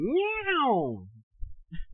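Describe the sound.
A person imitates a cat's meow with a single drawn-out, rising-then-falling cry, loud, followed by a few brief, softer vocal sounds.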